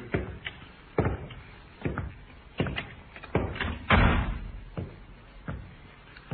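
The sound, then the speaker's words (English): The unlocked door of Colonel Reed's place of business is opened amid a series of heavy, evenly spaced thuds, with one louder, longer rattling knock midway; there is no talking. “And the sergeant tried the door. Not locked, sir.”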